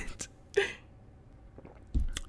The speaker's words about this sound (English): You may hear me sip my tea like I'm about to right now.